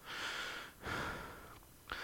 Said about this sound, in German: Und dann kannst du ja im Bauch hier schnaufen, ist gesünder